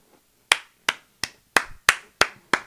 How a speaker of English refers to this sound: I had to stand up and clap for the brother because he said it so well.